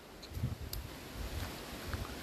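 wind blowing

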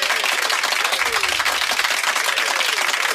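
applause sound effect

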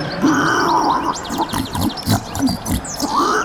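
pig grunting

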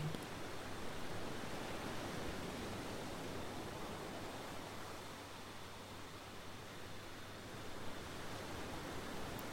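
ocean waves

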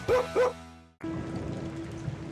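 rain falling

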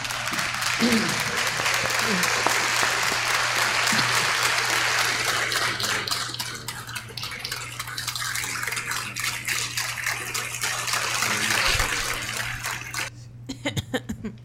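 applause

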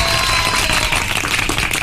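applause

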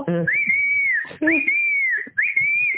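whistling

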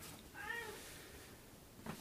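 cat meowing

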